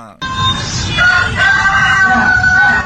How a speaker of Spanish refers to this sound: Ese es un gallo. Sí. Y luego después él quiere imitarlo. o sea, el perrito quiere hacerle como el gallo.